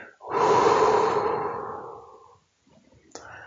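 A long, deep breath in and out: a broad airy rush that swells quickly, holds, then slowly fades over about two seconds, followed by quieter breathy rustles and a soft click near the end.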